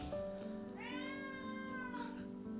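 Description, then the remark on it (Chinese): A house cat gives one long, drawn-out meow, rising in pitch and then holding steady for about a second, over a faint steady hum with no talking. “我觉得我被我们家的猫霸凌了。”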